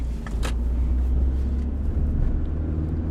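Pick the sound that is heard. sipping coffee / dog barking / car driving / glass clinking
car driving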